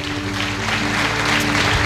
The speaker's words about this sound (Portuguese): Aplauda a Jesus.